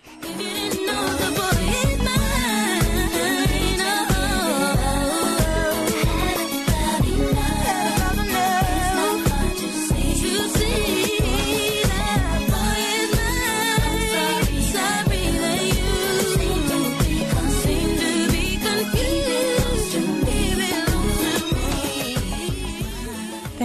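A pop R&B duet plays loudly and continuously, with a steady thumping beat and deep bass under layered, melodic sung vocal lines that run through the whole stretch.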